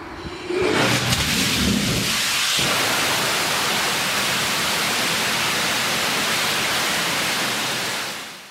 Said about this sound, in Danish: Det vi hører her, det er Danstars raketmotor, der drøner afsted, øh, som hvis den sad i raketten, men den er i den her video faktisk bare spændt fast på en, øh, en stor stålklods ind i en container.